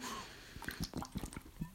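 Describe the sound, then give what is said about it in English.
Quiet sipping and swallowing of water, a series of soft wet gulps and breaths spread over a couple of seconds, with no talking. “get a little sip of water.”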